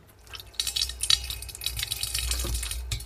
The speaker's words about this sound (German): Für heute werden wir erstmal noch zu Ende stampfen und das dann in den Gärbehälter umfüllen.